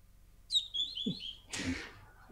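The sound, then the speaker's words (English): Newly hatched turkey poults let out a few high, thin peeping chirps, followed by a burst of rustling handling noise. No one speaks. “Yeah, I've been hatching out some uh, turkeys for my parents' birds.”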